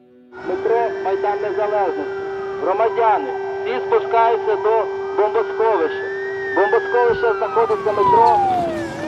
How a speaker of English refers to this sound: The fighting in Kiev hasn't happened yet too much. It's been happening mostly on the outskirts. So from inside the city, we've just been hearing air raid sirens almost constantly.